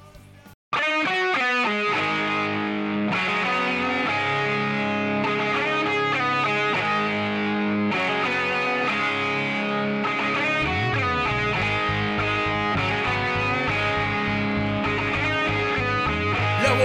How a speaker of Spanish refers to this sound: este disco, que se llama eh, …, trae este hermoso tema